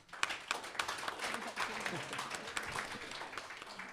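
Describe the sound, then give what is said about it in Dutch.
An audience at a bookshop evening event during the Boekenweek applauds steadily to welcome two authors, a dense patter of many hands clapping at an even, moderate loudness for a few seconds, with a faint murmur of voices mixed in. “Eh, en een speciaal welkom en een applaus ook graag voor”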